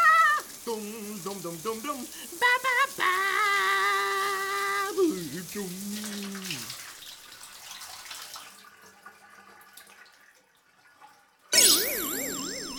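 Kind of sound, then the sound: household object, shower running water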